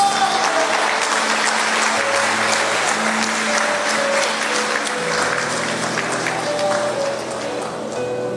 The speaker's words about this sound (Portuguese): Então dê uma salva de palmas ao Senhor, irmãos.